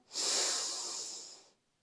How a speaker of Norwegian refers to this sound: Vi gjør det en gang til. Pust godt inn med nesa,